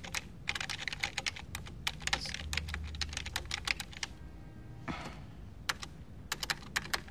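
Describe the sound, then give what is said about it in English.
Rapid, clattery typing on a chunky computer keyboard, with many sharp key clicks in irregular bursts and a brief pause near the middle, with no talking. “Look at that big chunky keyboard.”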